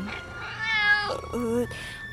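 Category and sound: animal, cat meowing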